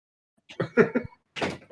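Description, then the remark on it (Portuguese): A broken wardrobe door being pushed closed: a cluster of knocking thuds and rattles, a short pause, then another burst of bumping as the door fails to latch. “A, a porta não tá fechando.”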